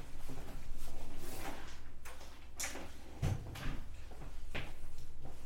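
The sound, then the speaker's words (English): A desk drawer slides open, followed by a few short scrapes and clicks as things inside are shuffled around while someone fetches a pen, fairly quiet with no talking. “Do you have a pen? Yeah, right in the drawer.”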